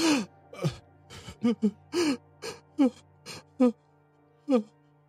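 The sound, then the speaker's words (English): A voice imitates soft, choked, shocked sobbing: a string of about ten short, breathy gasping sobs with wavering pitch, coming in uneven bursts, moderately loud. “As as you approach him, you would hear like soft sobbing, like kind of choked, shocked sobbing, like.”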